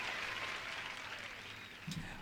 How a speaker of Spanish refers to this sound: Vamos a darle un aplauso ahí. Sí, eh, eso merece un aplauso de, los especiales.